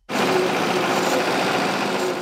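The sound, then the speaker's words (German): Steady, loud engine drone with a buzzing high-pitched whine, starting abruptly and running continuously without pause, from two small boats joined by poles, pulling an almost 18-metre bladed chain back and forth just above the bed of the Brenz river to mow water weed. No voices. “Zwei Boote sind mit Stangen fest verbunden, die ziehen die Kette hin und her schwingend knapp über den Grund der Brenz.”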